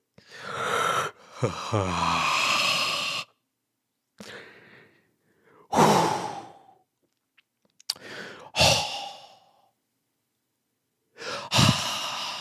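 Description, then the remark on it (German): A voice imitates a man in a sauna sighing loudly, several long breathy exhales repeated with short pauses between them, prominent, with no speech. “Der Typ hat immer super laut geseufzt so.”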